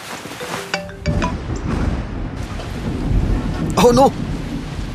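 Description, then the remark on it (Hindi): Steady rain hisses throughout while low thunder rumbles and swells, growing heavier after the first second; a person briefly exclaims over the downpour near the end. “अब सिंस बारिश की वजह से रुके हुए हम”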